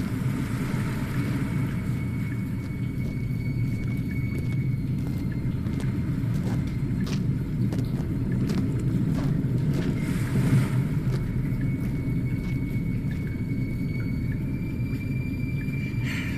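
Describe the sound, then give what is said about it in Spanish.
A steady, rumbling wash of sea sound fills the whole stretch, deep and constant with faint hissy spray on top, no distinct breaking waves standing out, and no voices. “Os llega el sonido del mar.”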